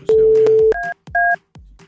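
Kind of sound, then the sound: signal or alarm, telephone keypad dialing tones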